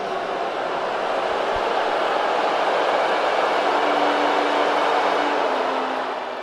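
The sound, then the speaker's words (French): A large stadium crowd at the 2018 US Open trophy ceremony, as Naomi Osaka won her first Grand Slam title by beating Serena Williams, roars in a dense, sustained wash of noise, with scattered whistles of disapproval rising from the mass, loud and steady throughout with no one speaking. “Ce que vous entendez là, ce sont des sifflets.”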